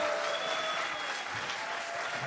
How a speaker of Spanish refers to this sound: Vamos, ese es un mejor aplauso al Señor. Give the Lord a better hand clap.